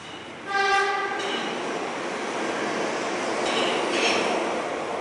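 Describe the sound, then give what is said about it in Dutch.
A loud metro train horn blares once for under a second with a rich, piercing harmonic tone, followed by the steady roar and rumble of the metro train running through a tunnel. “zijn klakson drukt. Dat, dat geluid is het.”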